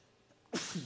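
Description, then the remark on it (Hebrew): A single sudden sneeze bursts out loud after a moment of near silence, a sharp explosive blast of breath that trails off with a short rough exhale. “לבריאות. תודה. זה אומר שזה אמיתי.”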